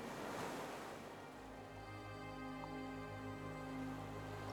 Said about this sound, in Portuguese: A onda que se forma no mar afeta o seu corpo com ondas de tranquilidade. Esta praia e essas ondas são inteiramente suas.